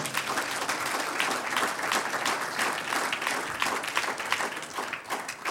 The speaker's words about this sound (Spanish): Gracias a Él, ¿cierto? Que nos ama personalmente. Un aplauso al Señor.